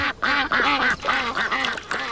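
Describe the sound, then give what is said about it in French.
A duck quacks repeatedly in quick, nasal bursts, about six or seven calls in a steady rhythm, loud with no other sounds around it, in a French Dacia TV advert featuring a duck wearing a swim ring in a pond and its laughing fellow ducks. “Ne faites pas comme ce canard.”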